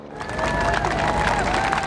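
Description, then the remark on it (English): A crowd of thousands cheers and applauds continuously as the Queen's coffin arrives at Buckingham Palace in the evening, in the rain; a dense wash of clapping and raised voices holding at a steady, loud level throughout. “Arriving early this evening to cheering applause from thousands of the Queen's most loyal royal subjects.”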